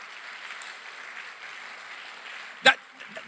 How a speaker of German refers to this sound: Ein Applaus für Jesus, ja.